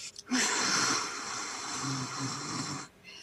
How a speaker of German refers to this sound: Also das ist einfach, dass man so ein bisschen, wie wenn man eben den Spiegel anhaucht, so einen Widerstand erzeugt, den macht man dann automatisch